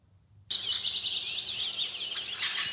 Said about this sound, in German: Ich glaube, wir müssen erstmal die eine Minute Vogelgezwitscher abwarten.